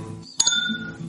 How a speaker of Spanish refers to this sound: Significa brindar sin contacto. Por eso, ven, sin cuidado. Que suenen los vasos y no las manos.